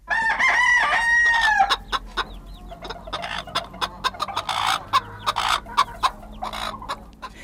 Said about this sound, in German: Ja, so ein Hahn, der kann auch nerven, klar. Wenn man direkt daneben wohnt, dann möchte man dem Hahn am liebsten den Hals umdrehen, aber das tut man natürlich nicht.